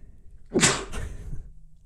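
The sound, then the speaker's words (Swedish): A single loud sneeze with a sharp explosive burst and a breathy tail trailing off, with no talking around it. “Jag vet inte hur många gånger som jag har haft lektion och får en nysning på gång och så får man inte nysa.”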